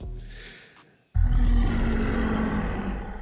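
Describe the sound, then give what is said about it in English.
A loud, deep dragon roar bursts in after a brief shrieking cry and a moment of silence, rumbling with heavy low-end growl that sustains to the end. “That's a motherfucking dragon in your ear, fam.”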